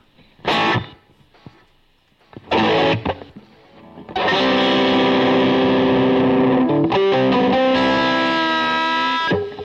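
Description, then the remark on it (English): Distorted electric guitar through effects with the noise gate and reverb turned off: two short, punchy stabs, then a loud sustained chord ringing for several seconds with a dry sound and no speech. “Let's turn that reverb off too.”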